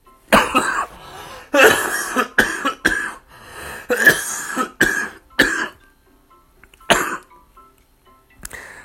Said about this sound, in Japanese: どうもすいません。咳が出ます。